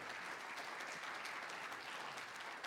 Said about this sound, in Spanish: Dele un fuerte aplauso a nuestro Señor Jesucristo.